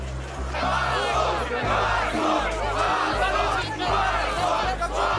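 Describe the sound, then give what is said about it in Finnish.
A large crowd of street protesters in Moscow, demonstrating over the presidential elections and demanding Vladimir Putin's resignation, chants in loud, rhythmic unison, voices swelling in repeated bursts roughly every second, with a steady low drone running underneath throughout. “Moskovassa on osoitettu mieltä eilisten presidentinvaalien takia.”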